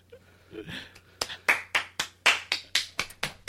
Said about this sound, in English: How do we follow that? Incredible! uh, with applause.